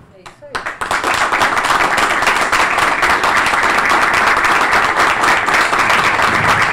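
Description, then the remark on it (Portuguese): A crowd at a PTB political event where Roberto Jefferson spoke bursts into applause after a few scattered opening claps, building within a second into a dense, loud, steady roar of clapping that holds without letting up. “Aí, tá, antes das palmas, ele faz que sim com a cabeça efusivamente.”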